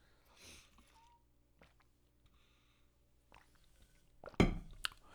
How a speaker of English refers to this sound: let me just take a sip of water and we get into it.